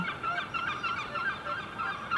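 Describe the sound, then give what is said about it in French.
Gulls call over and over on the Canal Saint-Martin in Paris at daybreak, in a dense, overlapping chorus of harsh, nasal cries, filling the whole moment at a fairly steady level with no talking. “Le jour arriva sur le canal Saint-Martin, avec ses mouettes, sans serpents à sonnette, ni fleurs de lotus.”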